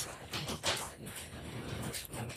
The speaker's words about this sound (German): Ist es zu laut? Es ist schon sehr laut. Es hagelt, glaube ich, gegen mein Fenster. Es, es klingt einfach so, als würden, als würden Leute äh, die ganze Zeit kleine Steine gegen dein Fenster werfen.